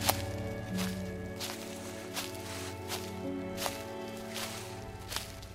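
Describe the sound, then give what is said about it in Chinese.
Slow, steady footsteps of someone walking forward in pitch darkness, about eight crisp evenly spaced steps, with a second set of footsteps moving in step with each one, over a soft, sustained musical drone with no one speaking. “周围除了脚步声之外，还有另外的脚步声。他走一步，那个声音也动一步。”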